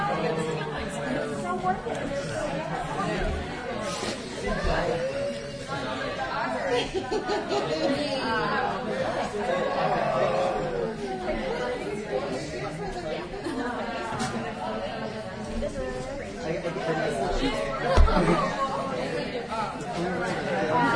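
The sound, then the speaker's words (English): A steady hubbub of many overlapping voices from a big crowd after a reading fills the whole stretch, chattering at once with occasional chuckles and a brief louder burst near the end. “Oh no, I love your work so much, and I'm so glad you had a big crowd.”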